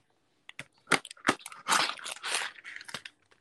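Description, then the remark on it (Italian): Someone chewing marinated tofu: a few sharp, crunchy bites followed by a stretch of steady, moist munching and smacking, fairly loud with no talking. “Comunque, per chi ci sta ascoltando, questo tofu marinato è una vera bontà. È veramente qualcosa di eccezionale, anche mangiato così.”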